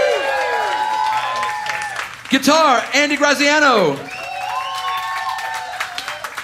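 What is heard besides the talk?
audience applause and cheering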